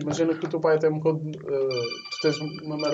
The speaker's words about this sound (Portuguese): isto é o telemóvel